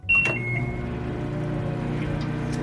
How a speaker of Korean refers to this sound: 근데 그 손님 일말의 망설임도 없이 전자레인지에 붕어빵 아이스크림을 넣고 돌리시는 겁니다.